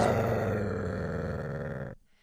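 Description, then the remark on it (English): A person imitates a cougar growl with one sustained, rough, rasping snarl lasting about two seconds, loud and gravelly throughout, then cutting off abruptly into quiet. “Cougars growl like that?”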